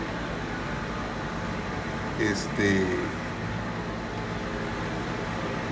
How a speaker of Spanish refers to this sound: Está nubladito. Estoy en el balcón con vista al mar. Hay un tractor limpiando lo que es el sargazo.